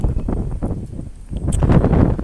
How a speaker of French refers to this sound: Alors, euh, je vous ai dit tout à l'heure, peut-être, je l'ai précisé, il y a beaucoup de vent là.